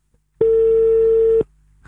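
telephone ringback tone

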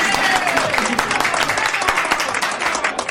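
audience applause and clapping

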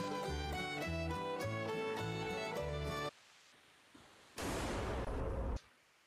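distant gunshot

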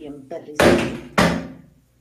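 door slamming

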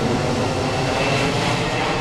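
airplanes flying overhead

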